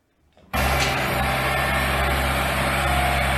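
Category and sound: vehicle, tractor engine idling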